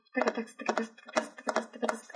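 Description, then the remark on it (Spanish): A voice imitates horse hoofbeats with rhythmic, paired clip-clop sounds, about five beats in a steady trotting pattern, moderately loud with no other talk. “Y empiezan a sonar así los pasos del caballo.”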